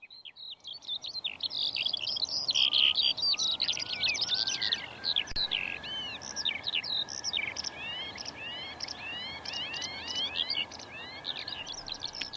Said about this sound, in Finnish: Tästä viseryksestä tulee mieleen vanha laulu Miksi leivo lennät Suomeen